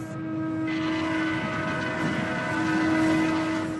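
A very long freight train loaded with iron ore rumbles steadily past in the desert of Mauritania, its wheels and cars grinding and droning at constant loudness, with a sustained metallic squeal riding over the heavy, continuous roar.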